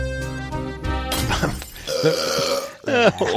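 Several loud burp sound samples follow one another in quick succession, some long and droning, others rougher and more guttural, with no talking in between.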